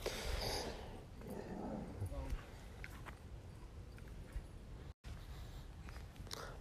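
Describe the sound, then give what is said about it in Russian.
A dog sniffs and snorts in a small dog-walking park next to Nord Park, a string of loud, breathy snuffling bursts with a brief pause near the end, over steady outdoor background noise. “Я на самом деле нахожусь сейчас не совсем в Норд-парке, а рядом с ним, в небольшом парке, где выгуливают собак.”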